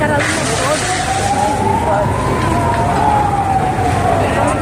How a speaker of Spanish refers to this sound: Han la zona, es un no cesar de, ambulancias, policía, bomberos